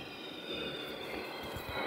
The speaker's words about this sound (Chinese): 正好是个音效，这是什么？ 飞机飞过去。 然后呢？ 那是电子音效， 而且你会发现它的转速已经在在变了。